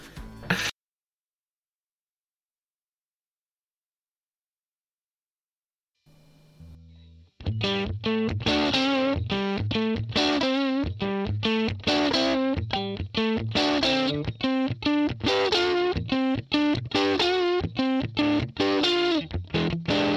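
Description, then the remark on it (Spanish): After a few seconds of silence, a loud electric guitar plays a blues riff of quick repeated notes through the crunchy, distorted tone of a 1959 Fender Bassman amp. No one speaks over it. “¿qué te parece si vamos a escuchar los tonos y los vamos comentando?”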